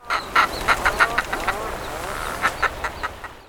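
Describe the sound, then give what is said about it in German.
Puffin calls: a string of harsh, grunting croaks repeated in quick uneven pulses, clear, with a low rumbling chatter running underneath. “Und wir haben als Infotier in dieser Woche den Papageientaucher.”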